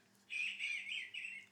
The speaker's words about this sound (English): That is a red-winged blackbird. There you go. So you guys, whether if you didn't learn anything about the Bible, you learned the red winged blackbird and call. you probably heard him the entire episode out the window as well.